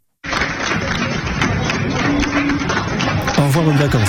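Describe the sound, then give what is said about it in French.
Players of the Caen club clapping steadily and cheering as a taxi finally arrives in front of Rennes airport at 3 a.m., over a dense crowd noise, with voices calling out and chattering throughout, loud and continuous for several seconds. “Et donc ça, c'est les applaudissements des joueurs qui voient arriver un taxi enfin devant l'aéroport de, Rennes à 3h du matin.”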